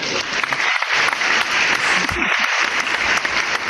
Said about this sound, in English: But a round of applause for Adam Gase.